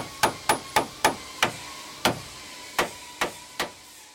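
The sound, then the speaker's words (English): Around ten sharp hammer blows ring out as someone fixes a guitar, each with a bright metallic ping, starting quick and steady and then spacing out more slowly toward the end, with no voices. “Now, I need to get on with fixing my guitar.”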